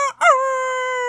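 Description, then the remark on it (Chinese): A loud rooster crow: a short opening note, a brief break, then a long, steady, strained call held for about a second, bright and harmonically rich, with no other sounds. “小公鸡难过的大声啼叫”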